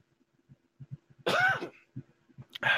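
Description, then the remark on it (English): A person gives a harsh cough to clear spittle from their throat, followed by a shorter second cough a moment later, with faint low rumbles and shuffling just before. “I had to had some cough, had some spittle in my throat.”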